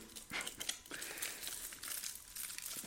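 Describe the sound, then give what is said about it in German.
Continuous crinkling and rustling of a plastic snack wrapper being torn open and handled, with bursts of crackle over a few seconds and no talking. “ich mache die jetzt mal auf.”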